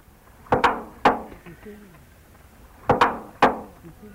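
A duck imitates the metal door of its cage: two bursts of three sharp, clanking knocks, with thin creaking, squeaky tones in between, fairly loud against quiet; recorded in 1987.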